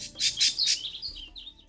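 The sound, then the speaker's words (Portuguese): Birds chirp in quick bright bursts in a city park, Parque de Engá, during a birdwatching event, a few overlapping high tweets followed by thinner, wavering calls, moderately loud with no voices. “Os visitantes tiveram a oportunidade de acompanhar com calma, receber informações das aves e curtir os sons da natureza.”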